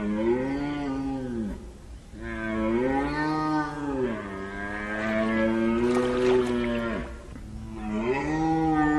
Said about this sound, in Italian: da metà di settembre in avanti fino alla prima decade di ottobre i cervi bramiscono. Avete sentito un suono straordinario, un incrocio di un rombo di trattore, un corno da caccia, un, un suono fortissimo e molto ricordabile come impronta.